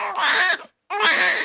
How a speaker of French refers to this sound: C'est un cri d'un enfant qui vient de naître, c'est que tout va bien et que c'est c'est fabuleux.